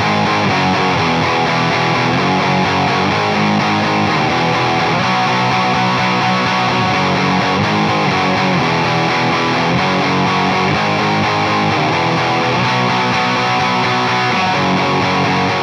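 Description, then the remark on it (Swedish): Heavily distorted electric guitar, an Explorer played through a 1968 Fender Deluxe Reverb amp at full volume, bass at zero and treble full: a loud, dense, continuous wall of crunchy, sustained chords and riffs for about fifteen seconds, with no voices. “Ja, det där är, det där är då den deluxe reverben bottnad.”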